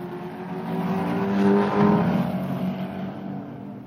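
Racing car engines roar steadily on a track, a dense layered drone that swells louder around the middle as one seems to pass by, then settles back. No voices.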